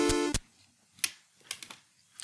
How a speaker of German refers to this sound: Dieser Zahnstocher-Drop. Ich versuche den mal in der Nachbearbeitung so laut zu machen, dass man den auch hört.